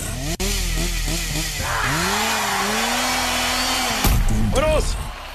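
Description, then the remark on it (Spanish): A loud chainsaw engine buzzes steadily, its pitch repeatedly revving up and dropping back, with a sharp click near the start and a harsher, higher surge toward the end. “Para ganar de con el show de Raúl vas a necesitar motosierra.”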